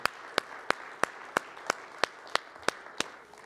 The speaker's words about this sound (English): Come on, let's give the Lord another hand clap if you wouldn't mind, please.